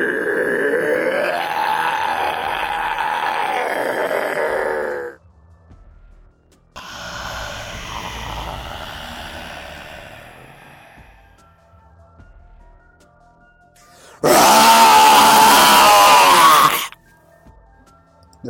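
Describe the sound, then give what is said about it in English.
Three guttural zombie growls separated by short pauses: a long, throaty groan, then a raspier, breathier snarl, and finally a loud, harsh burst of growling. “that that growly one, I think is the third or fourth one in a row.”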